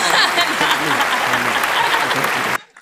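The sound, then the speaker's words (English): A burst of crowd applause, dense and steady clapping from many hands at a strong level, running for about two and a half seconds before cutting off abruptly into near silence. “Teamwork. Clap.”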